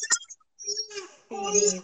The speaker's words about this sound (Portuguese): Eu vou ter que trazer a … também, porque ela tá chorando, tadinha.